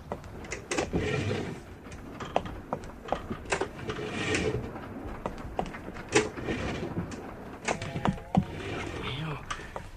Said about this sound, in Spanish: pasillo bordeado de ventanillas negras por su lado izquierdo y por las puertas correderas a su derecha. Abrió la primera.